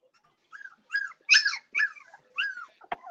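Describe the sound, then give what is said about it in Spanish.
Dogs whimper and yelp in a quick series of high, whiny cries, about six short bursts, ending with a sharp bark-like snap; no one speaks. “Oye, déjame maltratar a esos perritos.”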